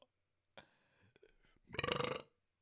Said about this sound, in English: Oh, God, that burp tasted like taco nachos. I had tortilla style loaded taco flavored quest chips.